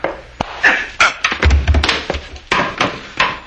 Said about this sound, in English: He didn't have to hit him so hard, Frank. That's the way you hit people with the butt of a gun.